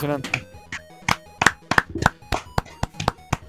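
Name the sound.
applause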